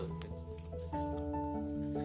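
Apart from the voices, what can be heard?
lip smacking mouth noises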